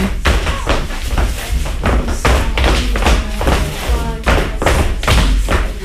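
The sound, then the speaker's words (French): A heavy yellow metal door, like a submarine entrance, at a building entrance on a side street with no shops, thuds loudly again and again in a rough, uneven series of about ten booming impacts with a ringing clang. “Cette porte, ouais, ça fait un peu une entrée de sous-marin. porte un peu jaune, la ferraille.”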